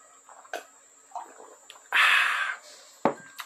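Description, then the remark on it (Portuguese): Water pours into a big glass, the fourth big glass of water, in a short, steady rush lasting under a second, with a few sharp clinks and soft mouth noises around it and no talking. “Sei que estamos aqui, ó. Quarto copão de água.”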